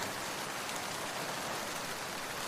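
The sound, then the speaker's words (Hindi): Steady, dense rainfall from a raging windstorm pours down around a monastery in a continuous hiss, heavy drops drumming on surfaces with no letup and no voices. “इस बीच आंधी और बारिश ने अपना तांडव रूप मचा रखा था”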